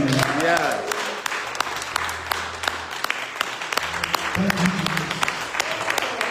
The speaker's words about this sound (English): let's clap and put our hands.